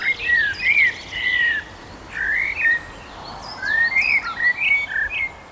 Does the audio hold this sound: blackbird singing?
yes